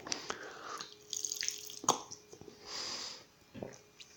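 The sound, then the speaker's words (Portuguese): Quiet water sounds: liquid trickling and splashing into a glass, a few drips and soft clinks, followed by faint sips and a swallow as someone drinks the water, with no one talking. “Deixa eu tomar uma água aqui que eu vou tentar contar a história.”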